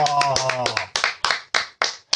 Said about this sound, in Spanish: vamos a terminar esto con una risa, con unos aplausos. ¡Bravo!